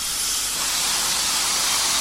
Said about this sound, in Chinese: 当走到通往火车驾驶室的楼梯时，正好火车扑哧的响了一声。